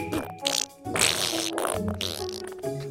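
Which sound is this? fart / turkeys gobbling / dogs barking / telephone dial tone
fart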